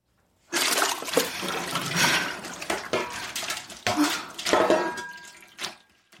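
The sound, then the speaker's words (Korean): Water gushes steadily from a kitchen tap into a sink in an officetel, washing down cold ramen broth just poured from a pot, a broad splashing rush with small clinks and gurgles, fairly loud, lasting several seconds before easing off. “그녀는 식은 라면 냄비를 데우려다 그냥 개수대에 쏟아부었다. 물을 틀어 국물을 내려보낸 순간”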